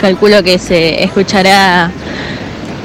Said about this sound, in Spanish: el ruido del mar de fondo. Muy lindo el día, está medio nublado, pero bueno, se puede venir a la playa igualmente.